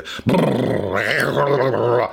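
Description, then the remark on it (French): A voice imitates rolling thunder with a loud, sustained, low growling rumble lasting about two seconds, rough and steady with slight swells in pitch. “Le roulement du tonnerre. Tu sais, quand tu entends.”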